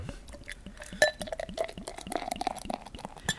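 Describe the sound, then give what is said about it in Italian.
Beer being poured into a glass, with gurgling splashes, a rising glassy ring as it fills, and a couple of light clinks, with no one talking. “Versa Alessio.”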